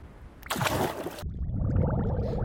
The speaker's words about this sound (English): I'll just open up my treasure chest and. Uh oh! Bubbles! can you help me pop them?